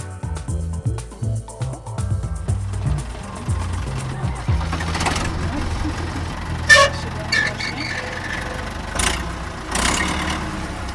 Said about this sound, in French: Ah non, non, vous ne vous trompez pas, ce n'est pas le bruit d'une voiture que vous entendez, mais bien celui d'un tracteur. D'un tracteur qui arpente quelques 2 hectares de culture en plein champ. Et oui, oui, nous sommes bien en Seine-Saint-Denis